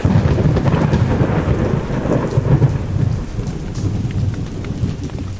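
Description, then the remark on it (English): Heavy rain pours steadily throughout, with a deep, rolling rumble of thunder underneath giving a constant, loud storm texture. No voices are present. “I hope the rain lets up soon, though.”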